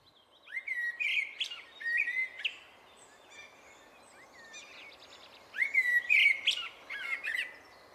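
Birds chirp and sing in bright, repeated whistled phrases with rising notes, coming in bursts separated by short pauses, clear over a faint hiss of background ambience.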